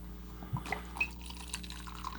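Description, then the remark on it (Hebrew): Liquid is poured into a glass for a small l'chaim toast, trickling and dripping in a few short, uneven splashes over a steady low hum, with no one talking. “נעשה לחיים קטן.”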